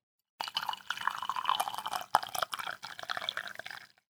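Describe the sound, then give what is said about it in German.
Tea pours steadily into a cup for a few seconds, a continuous trickling splash with small gurgles and a brief clink midway, no one speaking. “wollen wir Tee eingießen?”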